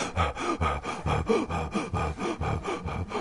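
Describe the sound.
A voice imitates rapid, out-of-breath panting of someone who has just arrived running: about a dozen quick, loud breaths in a steady, hurried rhythm, with no talking.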